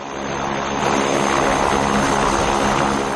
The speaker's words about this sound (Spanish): Una avioneta sobrevuela por el desierto. Desciende y toma tierra. La avioneta circula por el suelo.